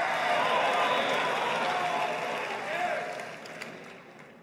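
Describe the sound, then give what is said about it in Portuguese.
A church audience at a worship service roars and cheers in a sustained wash of voices, giving a shout of victory, likely mixed with clapping. It is loud at first and eases slightly toward the end. “O povo já está dando brado de vitória.”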